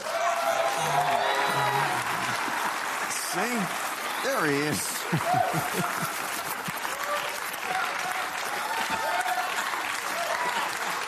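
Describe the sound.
A studio audience on a show breaks into sustained applause welcoming a guest called straw man, a dense steady clatter of clapping with a few whoops, while a man speaks over it.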